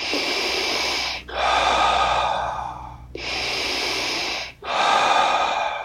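Loud breathing in a continuous cycle of circular breathing, inhaling through the nose as the belly rises and exhaling through the mouth as the belly falls, four long breaths flowing into each other with barely a pause and no talking.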